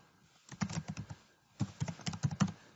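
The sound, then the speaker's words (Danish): Quick bursts of keyboard typing, clear, in two runs of rapid keystrokes separated by a short pause, with no one talking, as someone types the resource name "ladcykel 1" (cargo bike 1) into a booking system. “Så skriver jeg ladcykel 1, og den er der et stykke af.”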